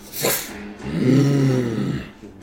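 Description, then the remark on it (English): A human voice imitates a dragon's deafening, bellowing roar: a quick breathy rush, then a sustained, throaty growling roar lasting about a second, fairly loud, with no other talking. “bellow a roar, deafening roar, and fly its full 80 feet.”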